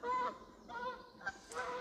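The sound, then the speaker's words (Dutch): Geese honking in a loud, overlapping chorus, harsh nasal calls repeating in quick bursts as a flock flies overhead, with no talking. “Oh, daar gaan de ganzen.”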